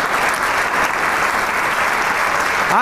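Sustained applause from a large audience after a clarinet performance, dense and steady clapping at a loud level, with a brief voice surfacing right at the end.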